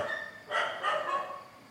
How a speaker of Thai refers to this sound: เราอยากจะฟังธรรมะให้สงบให้สบาย มันก็จะมีคลื่นแทรกนะเสียงสุนัขเห่าแทรกนะ